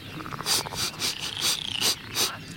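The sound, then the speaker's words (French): A baby frog paddling in water not far away: a run of soft, repeated splashes at a steady, rhythmic pace, moderately quiet, with no voices. “Je sens un bébé grenouille qui barbote pas très loin.”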